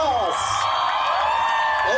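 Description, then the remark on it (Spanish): A crowd at the 1 November kite event in Zumpango, Zacatepeques, cheers and whoops loudly and steadily for two seconds as the Orquídeas group tries to raise a kite over 4 metres in diameter, many voices overlapping into a dense roar with rising and falling shouts. “¿Dónde está la ovación para”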